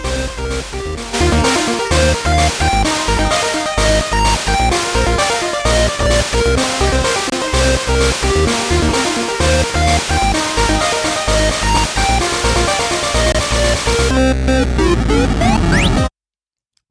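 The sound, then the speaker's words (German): Loud, dense intro music with a steady pounding rhythm, played from a soundboard, runs for about sixteen seconds, then stops dead in an abrupt cut to silence with no fade-out. “Ui, das war aber so. ein harter Cut.”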